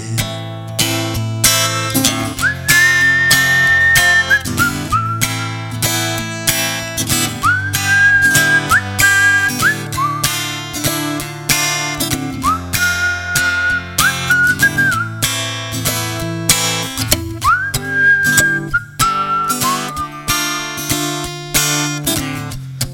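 A bright whistled melody carries a tune in sustained, gliding notes over steady full band accompaniment with a strong beat, with no voices singing or talking.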